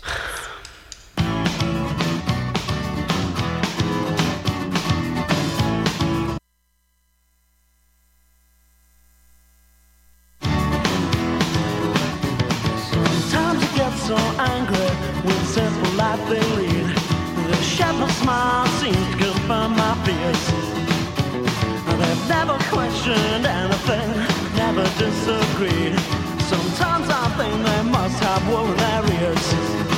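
A pop song plays loud and full with a steady beat, cuts out into near silence for a few seconds, then comes back in and carries on to the end.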